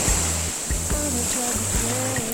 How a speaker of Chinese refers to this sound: 有没有听到很纯粹的这个海声？这个浪花拍打。海岸的声音，我现在所在的位置就是蜈支洲岛